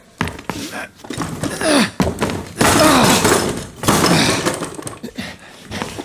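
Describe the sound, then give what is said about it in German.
Police force a door open at night with a series of loud splintering crashes and heavy thuds, building to a sustained burst of breaking wood, with brief strained voices mixed in. “Machen Sie schon auf oder wir brechen die Tür auf!”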